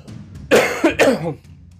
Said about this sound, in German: Da muss ich erstmal kurz husten.